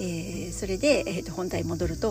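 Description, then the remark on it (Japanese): A steady, high-pitched drone of cicadas on a summer day buzzes continuously in the background while a person speaks in the foreground. “これセミの音入ってるのかしら すごいセミの声がね今めっちゃしてます、えー、夏ですね、”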